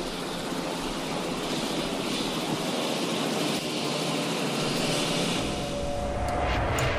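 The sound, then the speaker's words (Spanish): A helicopter drones overhead, its engine and rotor noise a loud, steady roar that fills the whole stretch without fading, with no one speaking. “Ese pinche helicóptero ya me tiene hasta la madre.”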